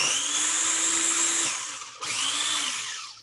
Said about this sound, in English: so I'm going to add a little bit of water and I'm just going to try and blend it once more. Um, and we'll see how this works. Uh-oh.